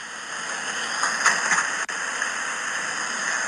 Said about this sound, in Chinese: 雷神山的建设声音是这样的。